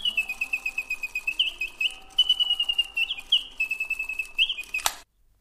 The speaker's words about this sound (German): Oder kleine, zwitschernde mechanische Vögel.